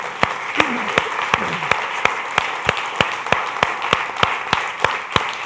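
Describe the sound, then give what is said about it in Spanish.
Steady applause from a crowd, given to the Lord, a dense wash of many hands clapping with a few sharper, louder claps standing out in a regular beat throughout. “Dele un aplauso, Señor, por favor.”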